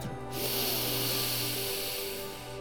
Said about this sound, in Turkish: Defne'ye okyanus nefesini öğretmiş. Burnundan sesli bir nefes alıp